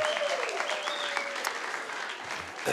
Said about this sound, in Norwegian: Vi må gi henne en skikkelig god klapp.